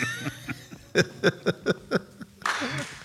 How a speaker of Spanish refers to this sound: Mirá, vea, el aplauso espontáneo, ¿eh? Nunca los vi tan copados a, todos hoy en el programa.